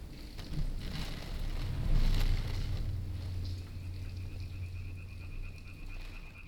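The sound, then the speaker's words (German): Steady rain falls in a dense, even patter with occasional sharper drops, over a low rumbling hum and a faint high tone later on. No one speaks. “Und tatsächlich, irgendwann verlässt mich die Unruhe, höre ich dem Regen zu, bin mit ihm einverstanden.”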